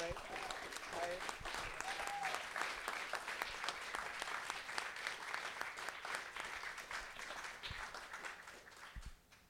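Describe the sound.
A crowd applauds steadily for several seconds, dense overlapping claps with a few brief cheers or voices rising above, then the clapping fades out near the end.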